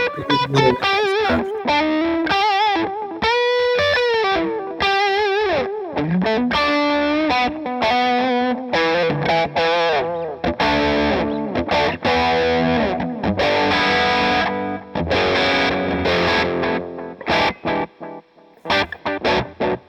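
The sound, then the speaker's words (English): An electric guitar played through a delay pedal and reverb, with bending, sliding notes and repeating echoes that smear into a dense, distorted wash, sustained loudly throughout with no talking. “I'm going to toss a little reverb on there.”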